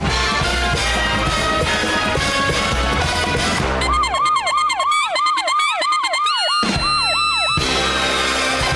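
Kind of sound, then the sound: vehicle, police car siren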